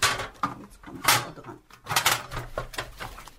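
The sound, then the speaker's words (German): A brown leather suitcase, screwed fast inside a wall cupboard, is tugged at by an estate administrator on a ladder, with a series of irregular scraping and knocking bursts of wood and leather rubbing and shifting, no voices. “Die Nachlasspflegerin nimmt eine Leiter und will den Koffer aus dem Schrank ziehen.”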